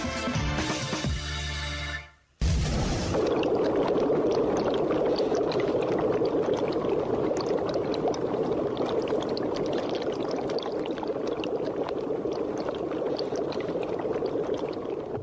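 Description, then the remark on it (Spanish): Chemical effervescence fizzes steadily in a private laboratory where DNA samples are processed, a dense hiss of countless tiny popping bubbles that holds at even loudness. A short tonal burst and a brief silence come first. No one speaks. “Bueno, estamos escuchando un ambiente de efervescencia química, ¿no? Como de un laboratorio.”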